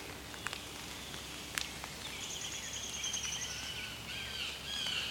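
A downy woodpecker calls with thin, high-pitched squeaky notes in the second half, after a couple of sharp sounds early on, against a quiet outdoor background with no talking.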